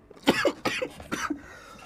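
Three sharp, raspy coughs in quick succession, with brief pauses between them and no talking.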